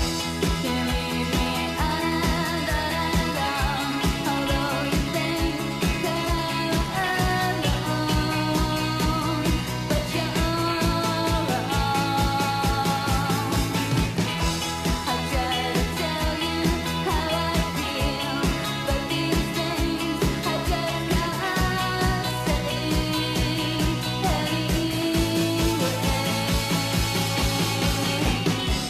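A recorded pop song plays steadily at full volume with a full band sound, chords shifting every few seconds and a driving beat throughout, with no one talking over it.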